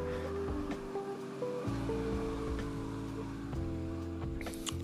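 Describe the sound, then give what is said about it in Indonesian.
A motorcycle engine drones loudly, its pitch stepping up and down a few times as it passes by, with a steady rushing noise underneath and no one talking. “Biar motor ini lewat dulu”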